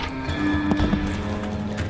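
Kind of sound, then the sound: animal, horses' hooves clip-clopping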